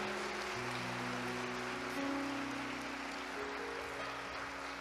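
A crowd claps steadily for several seconds in applause to the Lord, a dense, even wash of applause, with sustained keyboard chords holding underneath.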